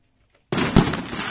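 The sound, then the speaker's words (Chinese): Silence, then a sudden loud burst of firecrackers exploding at once, with a sharp crack in the middle and crackling pops continuing densely to the end, set off at nightfall in Lhasa, Tibet, to celebrate the Tibetan New Year. “夜幕降临，鞭炮齐鸣，灿烂的烟火点缀着亮丽的星空。”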